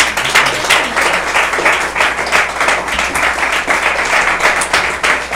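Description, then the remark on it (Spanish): A church audience claps hands to the Lord during a service, a dense, continuous patter of many overlapping claps at a fairly loud, even level, with a slight pulsing rhythm and no voices. “De un de palmas al Señor.”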